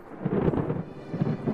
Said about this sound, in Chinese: 在回家的路上，天边忽然涌上来一堆黑乎乎的浓云，一声可怕的响雷在茉莉猪的耳边炸开